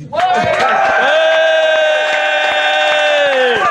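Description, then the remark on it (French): A crowd bursts into loud, sustained cheering and whooping, with steady applause underneath, holding at a high level for nearly four seconds before easing off at the end. “Par applaudissement, ceux qui ont déjà été déçus.”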